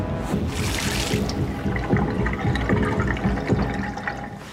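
Water pours steadily from a bathroom tap, a continuous rushing splash that holds at a constant level throughout, with no voices.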